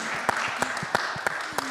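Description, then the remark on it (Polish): Audience applause for a guest fills the moment: a dense, steady wash of crowd clapping, with a few sharper claps standing out at a regular beat while someone speaks over it. “Zabijmy brawo dla”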